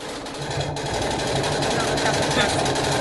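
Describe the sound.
A car exhaust backfires in a rapid, continuous string of sharp pops that crackle like gunfire, loud and steady throughout, with faint voices in the background; cars backfiring in Times Square.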